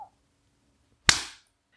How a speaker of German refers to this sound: Was machen wir da? Klatschen, ne?